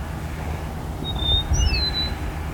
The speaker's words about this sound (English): My lark is still singing.